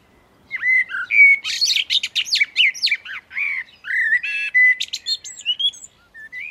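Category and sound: bird, blackbird singing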